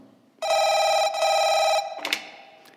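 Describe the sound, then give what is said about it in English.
A telephone rings loudly in two sustained electronic trills with a brief gap between them, followed by a quieter clatter as the ringing stops. It is an internal call on a phone in a building at night, where a security guard is alone on camera supervision duty. “So I was kind of surprised when an internal number lit up the phone.”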